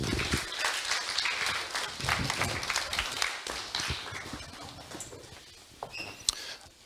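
An audience breaks into sustained applause, a dense crackle of many hands clapping at once that stays fairly steady before thinning out toward the end, with a few scattered claps lingering.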